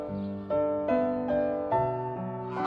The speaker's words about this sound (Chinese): 大清早，是谁在嘎嘎嘎的叫个不停呀？哦，是被关了一夜的大白鹅呀！他们的肚子早就饿了，好像在说：“快点开饭！”